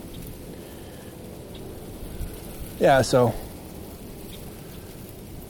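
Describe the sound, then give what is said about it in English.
Strong wind buffets the microphone outdoors as the speaker tries to shelter it, a steady, rumbling rush of noise that never lets up, with a brief spoken phrase rising over it midway through. “It's really windy, and I'm trying to shelter you from the wind”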